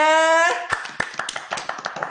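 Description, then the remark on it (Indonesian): A brief steady tone gives way to a few people clapping, with sharp, irregular claps overlapping for about a second and a half at moderate loudness. “Eh, ini pertama kali podcast menggunakan video tepuk tangan semuanya.”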